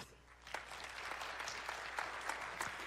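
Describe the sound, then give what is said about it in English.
Steady applause from an audience asked to clap if they have read or seen The Shack, a dense wash of many hands clapping at once, with a few sharper individual claps standing out, sustained evenly for the full few seconds with no talking. “I want you to clap if you have read or seen the movie The Shack.”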